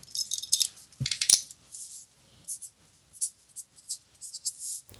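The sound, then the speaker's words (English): A marker scratches across paper in a run of short, dry strokes, writing down a note, fairly quiet, with a brief knock near the start and small gaps between the strokes. “Is that the sound of you actually writing something on paper?”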